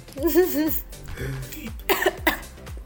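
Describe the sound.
A voice sings or hums a short wavering phrase, then breaks into a few close, harsh coughs in quick succession, with some throat clearing mixed in.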